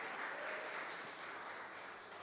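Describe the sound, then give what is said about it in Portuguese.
A church audience breaks into steady applause for Jesus, a dense, continuous wash of clapping that holds at an even, fairly loud level before easing slightly at the end, with no voices heard. “Aplauda Jesus, só quem está construindo uma vida extraordinária em Deus.”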